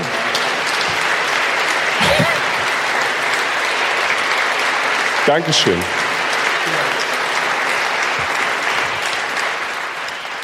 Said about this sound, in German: Vielen Dank. Dankeschön, sehr freundlich. Es kann ja fröhlich zu Ende gehen mit viel Applaus und so.